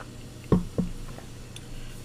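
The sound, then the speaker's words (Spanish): Someone sips from a small glass of water: two quick, wet gulping sounds in succession, followed by a few fainter swallows. “Perdón, otra, otro, otro vasito de agua.”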